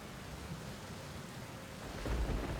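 Rain at midnight patters steadily on house roof tiles in a dense, even hiss, and a low rumble of thunder swells beneath it toward the end. No voices.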